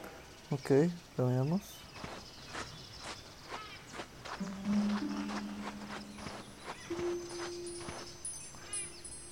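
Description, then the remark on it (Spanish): Soft, high wind-chime tinkles, a video game sound cue while searching for treasure, ring out near the end over steady, rhythmic footsteps, with brief vocal sounds at the start and a low sustained hum in the middle. “Si escuchas un sonido como de campanilla de viento, camina y gira.”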